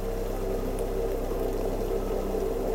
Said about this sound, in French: Nous sommes descendus sur la, plage de Calais, semblait euh, l'option la plus euh, hospitalière et nous avons suivi la berge jusqu'à une petite cascade.